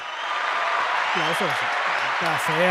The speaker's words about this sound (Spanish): Gente, un día importante, de Return de Sofrito PR. Un aplauso para Sofrito PR.